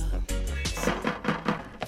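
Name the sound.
door being kicked down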